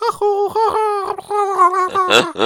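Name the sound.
person imitating a pigeon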